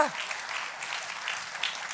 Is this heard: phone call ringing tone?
no